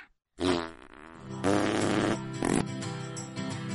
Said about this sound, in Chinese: 为什么有人放屁的声音特别大？可能是因为他穿了喇叭裤吧。